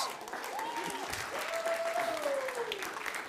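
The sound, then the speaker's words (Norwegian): An audience claps steadily and fairly loudly for the whole stretch. A thin whistle-like tone rises and slowly falls above the dense applause. “Dere kan gå og sette dere og få en nydelig applaus.”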